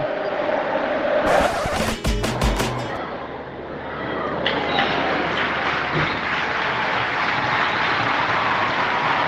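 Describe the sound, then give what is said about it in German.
A crowd of 2,894 spectators at the Di Stéfano stadium, watching the women's Clásico with Real Madrid, roars steadily throughout, a dense wash of cheering and clapping, with a short burst of sharp, rapid claps or bangs early on before the noise swells again. “Was ihr hier hört, ist, dass die Stefano 2894 Zuschauer und Zuschauerinnen, so viele wie ich glaube ich noch nie gesehen habe, haben den Klassiko gesehen, den Klassiko der Frauen, aber mal wieder gab es für Real Madrid nichts zu holen.”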